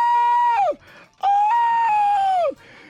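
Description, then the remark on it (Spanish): A voice imitates a woman's shrill scream in two long, loud wails, each held steady and then dropping off sharply, with a brief pause between them. “Y la señora gritaba.”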